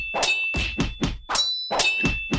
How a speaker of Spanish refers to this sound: Es el sonido de las armas chocar lo que me saca del trance.